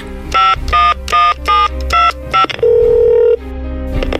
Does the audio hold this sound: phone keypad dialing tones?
yes